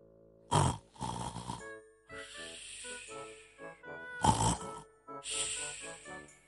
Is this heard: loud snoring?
yes